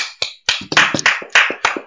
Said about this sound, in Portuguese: Palmas.